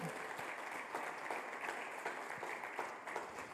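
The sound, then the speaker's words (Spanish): An audience applauding steadily, a dense crackle of many hands clapping at an even loudness throughout, with no single voice standing out. “Dar un aplauso bien grande, porque estoy hablando de vos, estoy hablando de lo que vas a lograr.”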